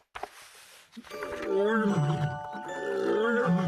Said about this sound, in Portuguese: Ao longe, ouviu-se um rugido, abafado pela distância. Ouviu-se claramente. Fora um rugido e quase de certeza de leoa.